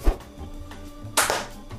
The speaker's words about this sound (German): Jetzt ist geklatscht. Ja. Wir spielen einfach jetzt diesen Klatschmoment ein.